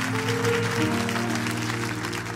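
An audience claps steadily throughout for a pastor and his wife coming up front, a dense wash of many hands, while held keyboard or organ tones sustain underneath the applause.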